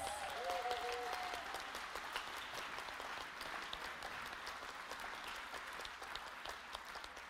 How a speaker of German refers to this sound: Und die Großen geben den Kindern jetzt mal einen ganz, ganz dicken Applaus.